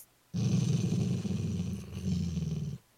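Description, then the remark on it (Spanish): A large German shepherd growls low and steadily for a little over two seconds in a school yard, a deep rumbling snarl with a slight dip midway, fairly loud, with no other sounds around it. “Irene, que paseaba tranquilamente por el patio de la escuela, escuchó unos gruñidos”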